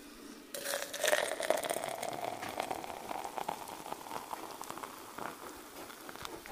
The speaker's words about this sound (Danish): I kan godt høre det, ikke? Det der. Det bliver en god kop kaffe. Og i med vandet.